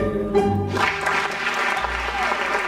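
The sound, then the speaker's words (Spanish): A sudden burst of applause erupts and continues steadily, a dense wash of clapping over a low musical hum that fades in the second half. “bueno, aplausos de repente, totalmente innecesarios.”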